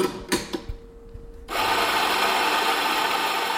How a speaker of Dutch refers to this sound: even veel lawaai maken om de bonen te malen.